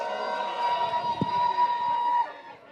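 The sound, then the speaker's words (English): A crowd cheers and yells in a steady, loud roar for a couple of seconds, answering a call to make some noise, with a sustained high tone running through the noise before it drops off near the end. “All the people that was having fun, make some noise.”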